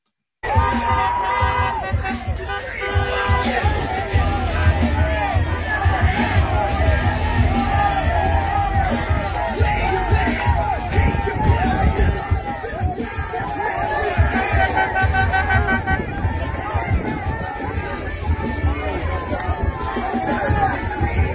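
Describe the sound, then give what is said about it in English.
A dense outdoor street crowd of people who are not Beto fans, outside a theater as Beto comes out, fills the scene with loud, continuous overlapping shouts and chatter, with occasional whoops rising above the din, sustained without a break. “Beto is coming out, and there are a number of people on the street who are not Beto fans.”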